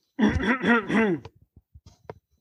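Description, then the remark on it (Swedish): A man clears his throat in a few rough, voiced bursts, fairly loud, before answering a question, followed by a handful of small clicks and breaths. “Jag får harkla mig.”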